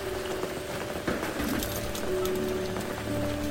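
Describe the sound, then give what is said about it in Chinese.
Steady rain makes a continuous, even hiss for a few seconds, with a faint low hum running underneath and no voices. “不怕，而且可能下雨对他们来讲还还蛮蛮棒，蛮舒服的。”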